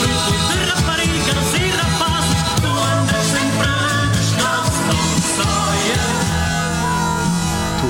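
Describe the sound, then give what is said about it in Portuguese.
Loud, full original main title theme music plays throughout, with a steady bass line under bright melodic phrases and no voices, filling the whole stretch at an even level. “Aliás, até podemos ouvir e comparar com o ah, original. Vamos ouvir o original, por favor.”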